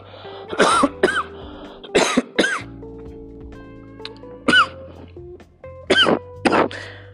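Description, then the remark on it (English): A person sitting outside has a coughing fit of about seven harsh coughs in clusters of two or three, separated by short pauses, over a faint steady background hum. No one speaks. “I know that's ironic because I'm sitting outside and now I'm coughing.”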